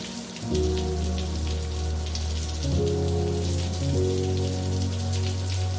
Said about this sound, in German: Aber die Wassertropfen vor euch sind immer noch so leicht am Beben in der Luft. Und jetzt fallen sie.